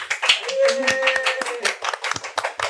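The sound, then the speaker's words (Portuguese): A crowd applauds the guests of the day's programme with dense, steady clapping that fills the whole stretch, loud, while a few voices cheer and call out over the hands. “Senhoras e senhores, recebam com um grande aplauso os nossos convidados do programa de hoje.”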